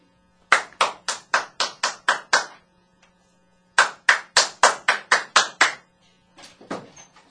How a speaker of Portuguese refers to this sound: À noite, eis que batem à sua porta.